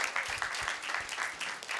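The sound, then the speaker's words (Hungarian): A short burst of steady applause for a 3-0 win against Bulgaria, many hands clapping densely and evenly throughout with no voices, the crackling sound holding at a fairly constant moderate level. “Az egyik az, hogy ugye három 0 nyertünk Bulgária ellen, tapsoljuk meg, bravo.”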